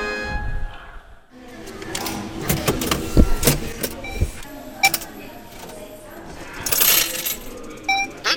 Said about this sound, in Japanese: 的中した勝ち馬投票券を自動払い戻し機に入れますと自動で生産されて払い戻しされます